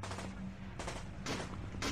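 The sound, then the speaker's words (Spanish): Heavy .50-caliber machine-gun fire roars in loud bursts, a rapid hammering volley pausing briefly between surges, with a deep rumbling low end underneath and no voices. “le soltamos una ráfaga de balas al ser con figura de perro humanoide”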